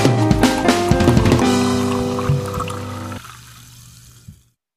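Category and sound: food or drink, fizzy lemonade being poured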